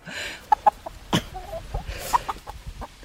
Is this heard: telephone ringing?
no